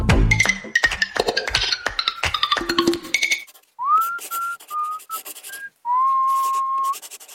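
A pop tune carried in pure, whistle-like sustained notes with gliding pitch follows a few seconds of busy clinking and clattering; no one talks.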